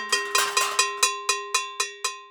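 A few quick, clattering metallic bangs give way to a school bell struck about five times at a steady pace during a teacher's lesson, each bright ring decaying before the next, fairly loud with no voices.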